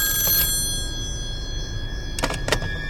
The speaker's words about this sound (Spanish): Ella se había quedado dormida y de la nada sonó su teléfono.